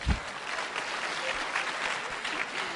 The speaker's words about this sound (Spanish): ¿Cuál de los señores lava la ropa en la casa? Uy, son bastantes. Un aplauso para los señores que lavan la ropa.